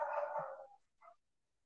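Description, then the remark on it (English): A dog barks twice, a longer rough bark followed by a short, quieter one, heard on its own with no talking. “nice dog.”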